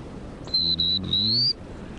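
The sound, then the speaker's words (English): A person whistles a short imitation of a black-throated blue warbler: three high, thin notes, two level and a longer final one sliding upward, clear against a quiet background. “Or depends on the bird's uh, you know, if they had the buzzy, like prairie warbler, or a black-throated blue,”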